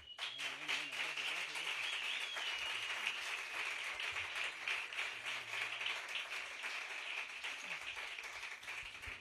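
Audience applause, a steady wash of many hands clapping that stays loud and even for about nine seconds, with a faint low murmur underneath.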